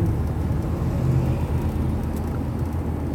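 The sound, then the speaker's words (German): A motorcycle overtaking on the road on a sunny, chilly November day, heard as a loud, steady low rumble of engine and road noise that holds for the whole moment without any voices. “ja, der Kollege hier hat mich gerade mit dem Motorrad überholt, also man, man kann schon noch fahren.”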